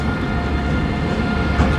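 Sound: train pulling into station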